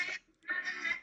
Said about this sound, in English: Who's putting music on? I don't know. Sorry, that was my phone.